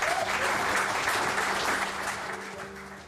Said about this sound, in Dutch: En dat vinden de aanwezigen in het zaaltje in Alerichtsel ook, afgaande op het spontane applaus.